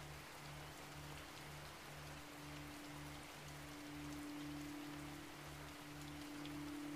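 A steady, dense rush of a clear river tumbling over rocks, fed by melted snow from the surrounding mountains, hisses without pause, with a soft low hum pulsing in a slow, regular rhythm underneath. No one speaks.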